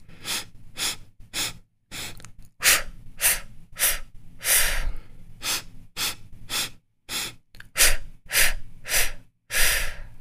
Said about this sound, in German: Ähm, stoßweise durch die Nase einatmen und dann stoßweise durch den Mund ausatmen. Also ich mache es einfach mal du machst dann äh, einfach mit, wenn du Lust hast.